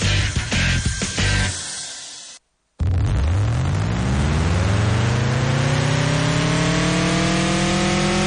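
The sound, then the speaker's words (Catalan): A loud engine runs steadily, then after a short silent break it revs up, its droning pitch climbing smoothly and continuously. No one speaks. “Un motor que treballa.”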